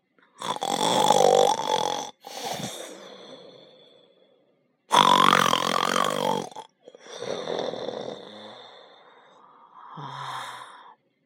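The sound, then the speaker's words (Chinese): A general sleeping at night produces a series of very loud, rasping snores, about five long grunting bursts with pauses between them, some trailing off into breathy exhales, with no speech. “不过，这只是因为瘦子将军晚上睡觉的时候打呼噜的声音很大很大。”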